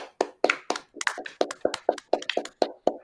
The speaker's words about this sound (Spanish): ¡Aplausos!